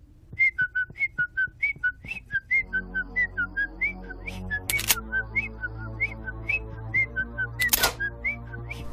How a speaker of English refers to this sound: I'll just whistle a happy tune.